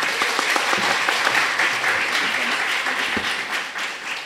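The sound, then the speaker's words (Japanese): A crowd applauds steadily for a newly introduced support pianist, a dense wash of many hands clapping at once, sustained throughout with no voices standing out. “すごい素敵なピアノを弾く人です、はい、みんな拍手拍手”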